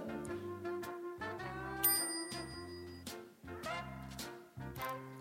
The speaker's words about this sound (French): Voilà la sonnette.